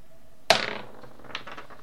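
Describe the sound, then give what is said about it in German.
Dice clatter onto a hard table: one sharp hit followed by a quick rattling tumble, then a few faint ticks as they settle. Fairly loud, with no voices. “Ich würfel mal.”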